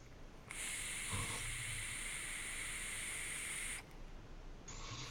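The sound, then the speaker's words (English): A steady, airy hiss of air drawn through an RTA vape tank with its airflow fully open, starting abruptly and holding for about three seconds before cutting off, then briefly resuming; fairly loud, no voices. “This is my RTA that is coming out”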